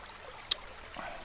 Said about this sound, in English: I've got a full CamelBak, but I'm going to go ahead and top off these canteens. Been going through a lot of water with all the walking.